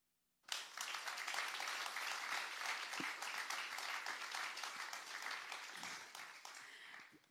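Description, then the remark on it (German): An audience bursts into sustained applause for the people doing an interview, dense steady clapping from many hands that holds strong for several seconds before easing off slightly toward the end. “den Leuten, die das Interview machen, einen Riesenapplaus.”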